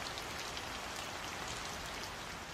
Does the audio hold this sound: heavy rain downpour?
yes